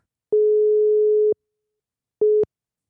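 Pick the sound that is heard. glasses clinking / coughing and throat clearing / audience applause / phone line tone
phone line tone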